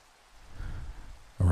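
Steady, soft rain hisses evenly in the background, swelling slightly midway before a louder, low tonal sound abruptly cuts in at the very end.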